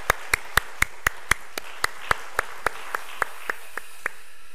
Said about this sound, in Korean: 2017년 들어서 제일 훌륭한 찬양을 드리셨는데 우리 하나님께 영광의 박수를 우리 시온 찬양에 감사의 박수를 한번 드리도록 하겠습니다.